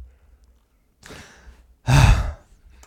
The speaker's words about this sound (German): Jetzt hör auf, so schwer zu atmen, nee, als hättest gut. du heute noch was zu tun.